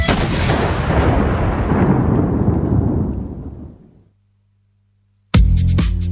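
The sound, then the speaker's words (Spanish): A crowd bursts into loud applause and cheering to welcome Darío Almada, president of the Unión Andina de Rugby: a dense roar that fades away after about four seconds; a short silence follows, then the clapping and shouts start up again abruptly. “Aplausos, gritos y ovación, así lo recibimos.”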